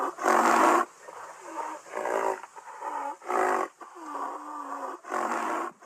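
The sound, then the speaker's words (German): A rhinoceros gives a series of loud, breathy hissing snorts in bursts, with rough low groaning tones between them, repeating about six times with brief pauses. “Dann würde es zunächst mal fauchen und im besten Fall würde sich das Nashorn, was sich nähert, dann entfernen.”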